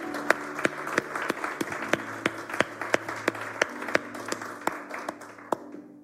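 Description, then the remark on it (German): An audience in Segeten applauds the team at the locations, with sharp, evenly spaced claps ringing out in a steady rhythm over a dense wash of clapping that gradually thins and fades toward the end. “Und lasst uns nochmal einen riesen Applaus geben für das Dream Team an den Locations und auch hier in Segeten.”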